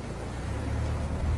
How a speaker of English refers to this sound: That's a motor. This is a motor. What you're hearing here is motor. Look at the lines. Look at how uniform they are. That's a motor.